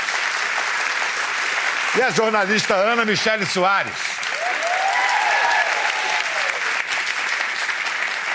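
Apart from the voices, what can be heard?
studio audience applauding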